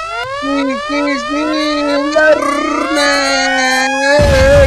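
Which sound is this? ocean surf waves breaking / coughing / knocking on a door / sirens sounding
sirens sounding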